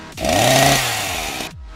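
A chainsaw roars to life and revs hard, its engine pitch climbing then settling into a loud, buzzing whine before cutting off abruptly after about a second and a half.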